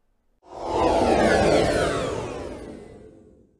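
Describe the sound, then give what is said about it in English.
A sci-fi warp engine effect surges in with a broad, roaring whoosh and shimmering high sweeps, holds loud for about a second, then slowly fades away. No one speaks over it. “We will continue after the, the warp engine sound.”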